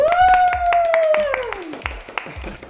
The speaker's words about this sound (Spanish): Me gustan todos los aplausos en vivo. A mí también. Totalmente, se siente muy bien.